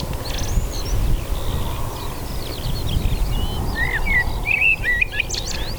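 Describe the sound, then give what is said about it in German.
A common blackbird sings in the morning, a steady run of warbling, fluting phrases over a constant low background rumble. No one speaks. “ja, der Volksmund sagt, dass es eine Amsel ist.”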